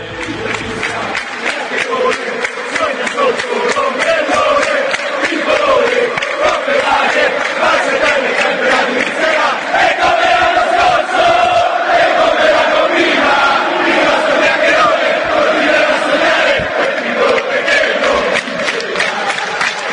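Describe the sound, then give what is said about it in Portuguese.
A large stadium crowd of Juventus football supporters chants in unison, taunting Inter fans as braggarts, a dense, loud roar of voices sustained throughout with rhythmic surges, heard from within the stands. “Vamos ouvir a torcida da Juve acusando os interistas de falastrões, seus chiacchierones.”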